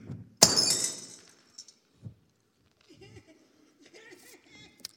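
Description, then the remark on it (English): A glass jar hits the floor and shatters with a loud, sharp crash, shards ringing out briefly, then a few small clinks of scattering pieces before faint voices murmur in the background. “And in that moment where we've held this with this jar, this relationship of trust, we drop it.”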